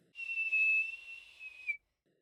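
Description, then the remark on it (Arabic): A single sustained, high-pitched whistle, made to call a wolf, held steady for about a second and a half, rising slightly in loudness before cutting off sharply, clear with no talking. “بتجيها فكرة صوفرت ميرا للدئب”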